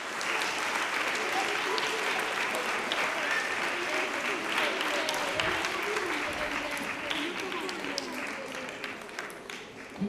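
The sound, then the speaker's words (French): An audience applauds all those who took part in a Christmas celebration, steadily for about ten seconds, a dense, even wash of many hands clapping at constant loudness, with faint murmuring voices mixed in. “On peut continuer à applaudir tous ceux qui ont participé à cette célébration.”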